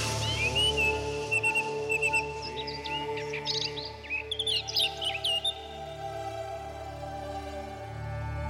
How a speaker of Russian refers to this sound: Океан птиц звучит, разумности голос тишиной гласит.